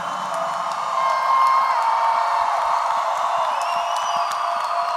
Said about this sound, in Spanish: Vamos, si vas a aplaudir, hazlo, pero bien fuerte. Bien fuerte.